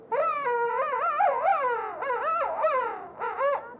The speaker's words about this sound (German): Äh, was es auch noch gibt, ist hier äh, der, der Königspinguin.